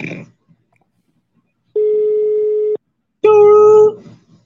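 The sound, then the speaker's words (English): An odd phone ringback tone on a call that goes unanswered: a steady electronic beep of about a second, a short gap, then a second, harsher buzzing tone with rich overtones, loud, after a brief bit of voice. “The fuck kind of ring was that?”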